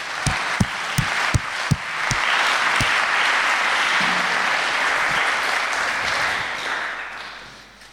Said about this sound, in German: können wir vielleicht zuerst der Band nochmal einen ganz herzlichen Applaus geben. Vielen Dank.